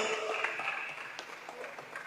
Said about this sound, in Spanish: Muchísimas gracias. El aplauso es para ustedes. Fuerte, fuerte, fuerte, se escuche fuerte los aplausos.